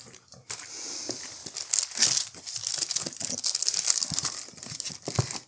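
Rustling and crinkling of paper photographic prints being handled, a steady run of crisp, irregular crackles and shuffles lasting several seconds with no one speaking.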